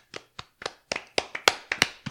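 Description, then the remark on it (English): A series of about ten sharp hand claps at an irregular, quickening pace, fairly loud, with no talking, clapped as a makeshift applause sound effect after Notre Dame is announced at number 10 in a ranking. “Like, hey, you clap too. It'll sound like YouTube.”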